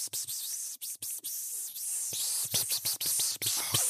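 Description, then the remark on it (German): A voice makes a long, steady hissing sound, imitating someone peeing. The hiss runs for about four seconds with a few brief breaks and no words. “Leute, macht euch frei, geht auf die Toilette, ich mache für euch kurz das Geräusch, dann könnt ihr einfach richtig schön Wasser lassen.”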